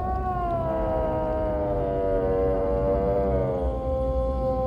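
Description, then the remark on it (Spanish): A long, wavering animal wail with a strained, tonal quality, sustained for several seconds over a low rumbling background: a creature's drawn-out bleat together with the agonized wail of a deer, sliding slightly in pitch. “Una vez más, el balido de la criatura se manifestó, al igual que el agonizante lamento del ciervo.”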